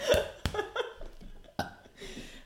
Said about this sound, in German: Okay, gut. Das war der erste Rülps auf dem Podcast. Ich kann eigentlich noch lauter, aber gerade nicht.